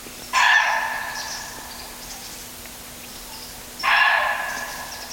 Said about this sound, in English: Now, that something might be us, but if we're pretty sure it's not us, we're not the ones that have uh, surprised the deer and made it give a call, then it's telling us that, that something or someone else is out there.